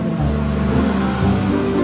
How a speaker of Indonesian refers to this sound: mohon dimaafkan aja nih kalau misalkan ada suara-suara motor, mobil, suara rakyat gitu karena kita ini lagi recordnya di pinggir jalan ya